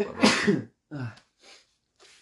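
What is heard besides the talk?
sneeze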